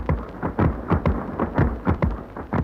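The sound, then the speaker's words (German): Deafening, continuous drone of some 600 Schackert weaving looms standing in close rows in a large weaving hall, with heavy rhythmic beats pounding roughly three times a second over a dense, rumbling mechanical roar. No voices are heard. “Wir hören das ohrenbetäubende Dröhnen der Schackertstühle”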